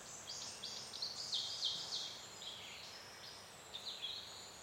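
Sharp, high bird chirps and trills repeat in quick bursts over a soft, steady rush of wind, heard outdoors with no one talking.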